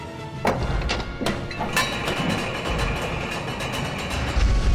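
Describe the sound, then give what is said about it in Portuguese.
A heavy metal arena gate closing far off, after an ogre has entered: several sharp metallic clanks and thuds in quick succession, then a sustained grinding, rattling rumble that swells again at the end. No voices. “O portão de metal se fecha.”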